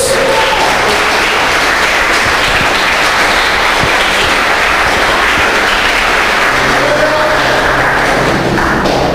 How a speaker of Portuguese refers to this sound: Se você crê nisso, aplaude bem forte a Deus.